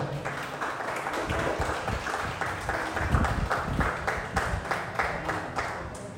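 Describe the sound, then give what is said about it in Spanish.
An audience applauding to God, with dense overlapping claps forming a continuous wash of sound at moderate loudness, a few sharper claps standing out through the crowd noise. “Un aplauso a Dios.”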